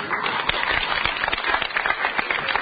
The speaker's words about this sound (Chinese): 掌声不十分激烈，就不准备说了。